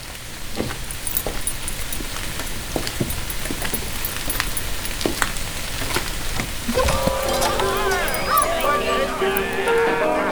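An Afghan hound, led on a leash by a woman, gives a few scattered short barks and yips, then breaks into wavering, high-pitched whimpers that continue steadily over a soft, rain-like background hiss.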